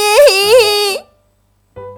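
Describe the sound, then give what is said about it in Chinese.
A voice imitates a bear cub crying as it runs out of its home, in a children's story being told in Chinese: a loud, high, wavering wail lasting about a second, rising and falling twice, then a pause before another voiced sound begins. “小熊边哭边跑出家门。”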